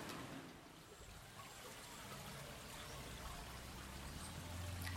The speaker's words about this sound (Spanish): se escucha el río, porque aquí tenemos río.